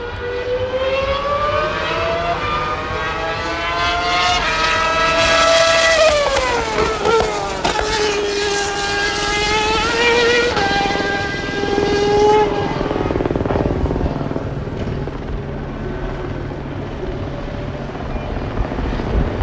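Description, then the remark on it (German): Loud, high-revving old V10 race car engines scream past continuously during a 12-hour race at the Müllenbach loop of the Nürburgring, Germany, before more than 30,000 spectators; several cars overlap, their shrill whine rising and falling in pitch as they accelerate, shift and sweep by. No talking. “Mehr als 30.000 Zuschauer sind in die Müllenbach-Schleife des Nürburgrings gepilgert, um sich diesen einzigartigen Sound anzuhören.”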